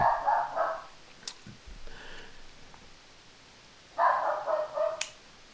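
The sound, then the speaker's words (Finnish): A dog named Kuki, nervous at people at the door after the doorbell, barks in two short, excited bursts, a quick flurry at the start and another after a pause of a few seconds, moderately loud, with no voices. “Toi koira vähän hermostuu tuossa.”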